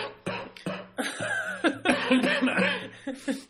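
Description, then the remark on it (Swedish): Rough coughing from a person who is sick, in a quick series of bursts, about half a dozen, with some voiced, laugh-like sounds mixed in between and no clear speech. “Den här hostan tar lite fokus från din historia.”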